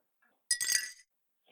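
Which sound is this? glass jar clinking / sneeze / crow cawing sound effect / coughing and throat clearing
glass jar clinking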